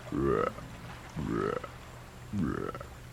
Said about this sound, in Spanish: El ratón compositor no tardó mucho en encontrar al sapo. Cantaba a orillas de un arroyuelo bajo la luz de la luna.